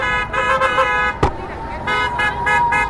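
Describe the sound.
Car horns honk in repeated, sustained bursts from cars driving past, layered over one another with a sharp knock partway through and indistinct voices in the background, as drivers greet flag-waving supporters gathered at the gate of Walter Reed hospital.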